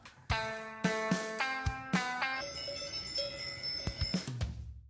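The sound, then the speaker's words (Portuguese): A short jingle of ringing cowbell strikes introducing a 'badal da semana' segment: sharp metallic hits with bright, lingering tones, a few spaced apart at first, then quicker and overlapping toward the end. No talking. “Qual é o vosso badal da semana?”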